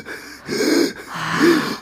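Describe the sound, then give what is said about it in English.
Someone imitates wheezing, the difficult breathing related to asthma, with two strained, labored inhalations in quick succession, each raspy with a faint whistling tone, with no talking. “to have the difficult breathing. Something related to asthma.”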